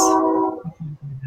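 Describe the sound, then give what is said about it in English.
A train horn sounds a rich, sustained chord for about half a second, then fades, leaving a low rumbling pulse of the train pulling in underneath. “So it's a very vibrant train horn.”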